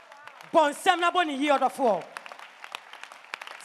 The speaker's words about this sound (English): You see, even your clapping shows that you are not grateful.